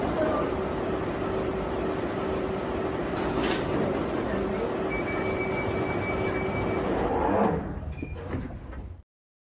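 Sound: underground train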